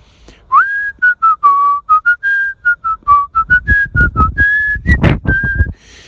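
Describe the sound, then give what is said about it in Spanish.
Someone whistles a folk song melody from a distance, clear and fairly loud, moving through a quick run of separate notes that rise and fall, with breathy puffs between phrases and no talking. “le comencé a silbar de lejos San el Ángel”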